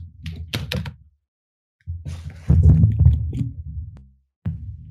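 A microphone gets knocked over and handled up close: loud, boomy thumps and scraping clatter in uneven bursts, broken by a second of silence, then a long rumbling fumble and one last knock.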